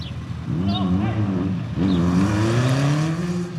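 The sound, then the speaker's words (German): A green motorcycle, which was speeding and was being pulled over by police, revs hard and accelerates away as the rider flees the traffic check, its pitch climbing through two quick gear pulls. The roar stays loud and steady with no voices. “Ein grünes Motorrad war oben zu schnell und soll hier unten von der Polizei rausgezogen werden.”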